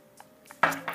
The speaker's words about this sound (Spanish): Voy a tomar un poco más de agua porque me estoy, me estoy quedando sin garganta